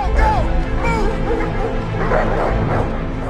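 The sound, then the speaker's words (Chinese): Several police dogs bark and yelp excitedly in pursuit, in quick overlapping bursts, loud and continuous over a low rumbling background, with a few higher whimpering yips mixed in, as Batman rides away on a motorcycle at the end of the film The Dark Knight. “背负罪名并且受伤的蝙蝠侠骑着摩托远去，身后伴随的是警犬追逐的狂吠。”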